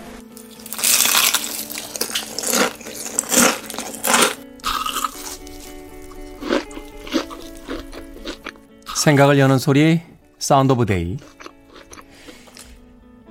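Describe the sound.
Chicken frying in oil, with loud crackling, sizzling bursts and sharp pops in the first few seconds, then quieter hissing under a voice that speaks briefly.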